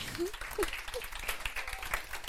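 An audience applauds in a steady, dense patter of many hands clapping for a couple of seconds, with a few brief voice sounds mixed in underneath.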